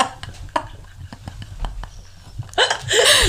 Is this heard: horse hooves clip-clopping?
no